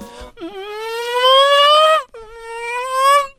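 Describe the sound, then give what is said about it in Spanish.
A voice imitates a Formula 1 car with two loud, buzzy whines, the first climbing steadily in pitch before cutting off, the second shorter and holding level, with no other sounds. “A ver, haz un ruido de Fórmula 1.”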